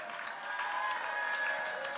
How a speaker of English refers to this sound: A round of applause for everybody you saw on stage tonight.